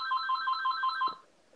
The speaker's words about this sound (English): i'm sorry that my house phone. is popular I, I really dislike this. I'm sorry, everyone. I'll just whenever we record, I'm just gonna disconnect that phone because oh my god, that shit is giving me conniptions.